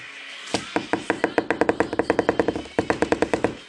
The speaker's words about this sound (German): Ähm, ja, okay, ich glaube, wir hören mal auf, weil wir werden jetzt die ganze Zeit einfach nur so hämmern und das wäre, glaube ich, ein bisschen los.